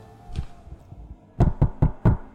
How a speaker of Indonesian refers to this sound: Mas ya, saya ya, salah ngetok pintu.